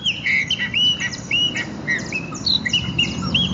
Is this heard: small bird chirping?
yes